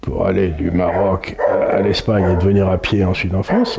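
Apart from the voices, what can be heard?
dog barking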